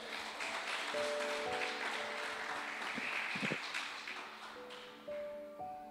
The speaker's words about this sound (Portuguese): Você pode dar um aplauso ao Senhor aí e ficar de pé?